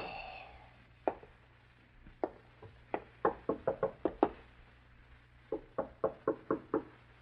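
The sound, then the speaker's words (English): Insistent knocking on a wooden apartment front door, several bursts of quick raps, some spaced, others in rapid clusters, fairly loud, with a low hum underneath and no voices. “You stare at the front door of the apartment in startled silence. Your first impulse is to answer the door”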